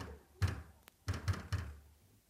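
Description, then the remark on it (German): A woman pounds her fist heavily on a door, four dull thuds: one, a pause, then three quicker blows in a row, with a faint click between. Nobody speaks. “Die wird bald aufhören, gegen Türen zu schlagen.”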